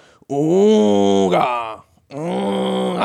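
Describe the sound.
A voice imitates an old klaxon, a pumped horn once common on cars, as heard in a small town in Minnesota, USA: two long, buzzy, honking blasts. The first is drawn out and slightly bending in pitch, and a brief pause comes before the second.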